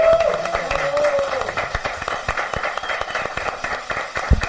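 An audience applauds steadily for several seconds, a dense patter of many hands clapping at once, with a brief whistle-like tone or voice near the start.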